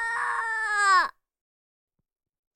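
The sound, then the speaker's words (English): A baby, woken up by loud music, lets out one sustained, loud wail lasting about a second, its pitch dropping sharply as it breaks off, followed by silence and a faint click at the end. “I really don't torture my kid. Now he is safe and sound in bed. We woke him up after being really loud with our music.”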